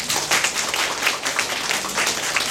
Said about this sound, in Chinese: 那想要借助大家的掌声，感谢以上我想要感谢的人。